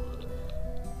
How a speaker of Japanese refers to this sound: ああ、なんか、収録中のアクシデント感がすごいですね。外でピーポうーなってますね。